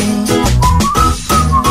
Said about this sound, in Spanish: Ahí, silbando de buena mañana.